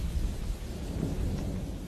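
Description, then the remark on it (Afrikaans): A thunderstorm rumbles steadily, deep rolling thunder blending with a constant hiss of rain, fairly loud, with no voices over it. “Die oggend na die storm staan Marie Lou vroeg op.”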